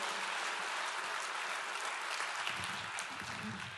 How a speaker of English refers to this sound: We're clapping, and we, and we should, but just know that that involves a date with the pit.